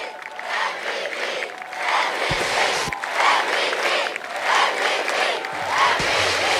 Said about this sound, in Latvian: Jā, nu Pūlis turpina skandēt MVP, MVP, jeb vērtīgākais spēlētājs